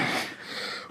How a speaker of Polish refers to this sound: To był dźwięk wsiadania na fotelu, jakby co.